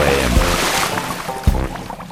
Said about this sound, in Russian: Лодка моя волшебная, всегда на готове. Забирайтесь, отчаливаем.